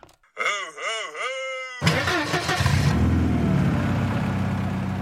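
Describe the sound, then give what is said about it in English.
A wavering, moaning whine rises and falls for over a second, then a car engine bursts to life and revs into a loud, steady rumble that holds to the end, before cruising snowy streets. “You know what that sound means? Let's cruise these snowy streets”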